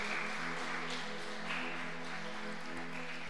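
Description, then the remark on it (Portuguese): An audience claps to the Lord together in a dense, continuous wash of applause for a few seconds, with steady sustained tones humming faintly underneath and no voices standing out. “Aplauda mais forte, até isso, aplauda mais forte ao Senhor, aleluia.”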